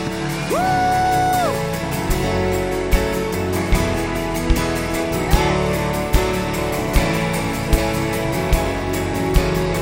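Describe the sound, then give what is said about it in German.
Loud audience applause given after a prayer: a dense wash of clapping with high whoops rising over it early on, then sharper regular clap accents emerging as the cheering crowd keeps going. “Komm mal, lass uns einen Applaus geben.”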